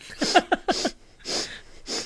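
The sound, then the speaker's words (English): A voice imitates the harsh, repeated nose sniffing heard in China, fairly loud, with a quick cluster of snorty sniffs followed by two longer, breathy inhales. “But the thing that I would miss the least is the sniffing.”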